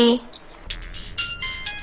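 A mobile phone rings nearby with a bright electronic tune of quick repeated notes, clear and steady over faint background noise, after a short chirpy sound at the start.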